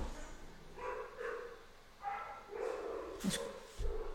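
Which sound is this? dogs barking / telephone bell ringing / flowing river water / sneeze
dogs barking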